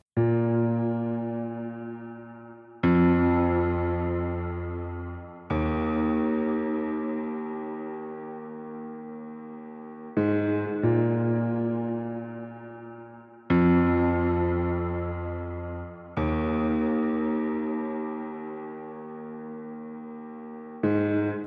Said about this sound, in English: Music is taken from the album …